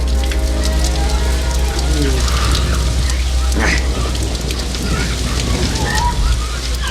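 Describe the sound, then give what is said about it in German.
Heavy rain pours down in a sudden downpour from a dense cloud cover, a dense, loud hiss of drops drumming on a surface, unbroken, with a low rumbling hum underneath throughout. “Langsam verschwand die Sonne hinter einer dichten Wolkendecke und bald darauf fielen die ersten Regentropfen. Innerhalb weniger Augenblicke goss es in Strömen.”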